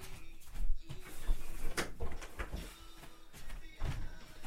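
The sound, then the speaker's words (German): A door is pulled shut indoors, with a few soft thuds and a brief latch-like click amid quiet rustling and handling noise, not loud. “Wollen wir hier die Tür zumachen?”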